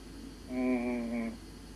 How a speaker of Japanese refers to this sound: えー、わやわやわやわやわやってたまになると思うんですけど、あの、近くに線路があって電車が通るんですよね。それがあのーこの安いマイクで拾うとそういうなんか変な音になるという。